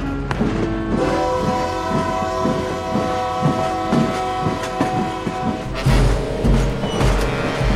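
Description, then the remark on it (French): At 7:40 pm a train resumes its journey, rolling along with a steady rhythmic clatter of wheels while a long, sustained horn blares over it, loud and continuous, with a heavier rumble surging near the end. “19h40, le train reprend sa course.”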